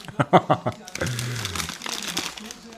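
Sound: hand rummaging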